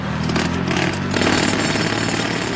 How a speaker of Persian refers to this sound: فضای سبزی که توش ساخت و ساز انجام میشه و فضای سبزی که دیگه نیست